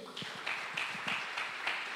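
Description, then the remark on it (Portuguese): Scattered clapping from a group of people at a religious gathering, applauding the Lord, a steady patter of overlapping claps with a few louder bursts. “Você pode dar um aplauso ao Senhor aí?”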